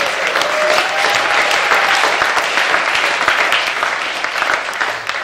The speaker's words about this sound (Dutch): Als je het gelooft, geef God een applaus.